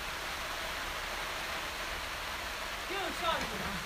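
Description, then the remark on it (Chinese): Rain falls in a steady, even hiss that fills the whole stretch without letting up, and a faint voice surfaces briefly under it near the end. “天天都会下雨吗？”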